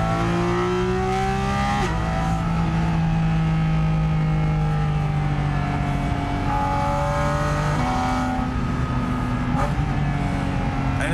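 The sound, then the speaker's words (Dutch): A loud naturally aspirated sports car engine revs and shifts up through the gears, its pitch climbing and dropping in steady sweeps, with a brief voice underneath. “heerlijke is, atmosferische blok, het is natuurlijk enorm, zeg maar, ja, je, te doseren.”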